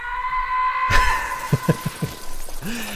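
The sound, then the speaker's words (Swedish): A police chief's sustained yell at Arnold is broken by a sudden crash as the glass of his office explodes from the yelling, followed by several short clinks and clatters of falling shards. “men man älskar ju den här, eh, som ni säger, polischefen eh, liksom, som bara skriker och eh, är det inte här som glaset till hans kontor exploderar för att han skriker på Eh, på Arnold för att han har förstört så mycket och lalala.”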